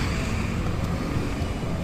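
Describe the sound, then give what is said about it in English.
Steady, dense street traffic by the Tiber river with a low engine rumble filling the air, tourist buses and motorino scooters blending into a continuous roar, heard while crossing the river on foot, with no one speaking. “There's still some uh, heavy traffic here, tourist buses passing me by and some motorinos.”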